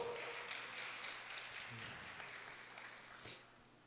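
A crowd claps steadily for several seconds, a dense, even patter of many hands that fades slightly toward the end, with a faint low hum underneath and no clear speech.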